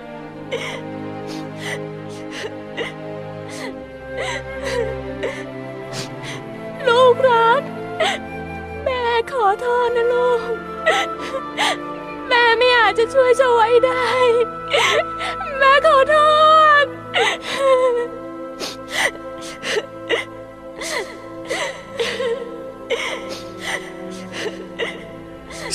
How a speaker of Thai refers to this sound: เสียงร้องไห้ที่กลั่นออกมาอย่างเจ็บร้าวครั้งนี้ พระเจ้าพรหมทัตมิอาจกลั้นน้ำพระเนตรไว้ได้